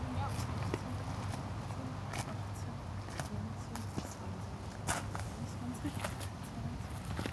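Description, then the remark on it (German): Steady footsteps pace along outdoors, someone counting roughly one-metre steps to measure the length of a bramble hedge, measured as 58 metres. Each step is a crisp crunch at an even walking rhythm, over a constant low rumble with faint voices in the background. “Geh mal so ein Meter Schritte.”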